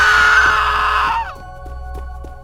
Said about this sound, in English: Suddenly, we see the boggart levitating out of the trash can. We quickly ran out of the kitchen, screaming in fear.